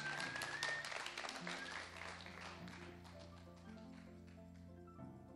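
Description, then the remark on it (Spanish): Steady applause from a large audience fills the Sala Julián Carrillo during a live Radio NAM broadcast, a dense crackle of clapping that fades slightly, with sustained low musical tones ringing underneath. “Aplausos.”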